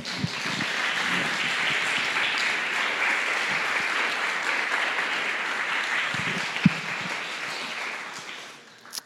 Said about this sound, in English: so please clap for him.